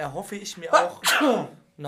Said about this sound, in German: Gesundheit. Heuschnupfen, ja.